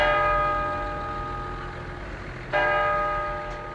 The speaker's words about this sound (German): Auch wenn die Kirchturmuhren noch heute den Viertelstundentakt in die Luft senden, für viele Menschen von heute vergeht die Zeit gefühlt schneller als früher.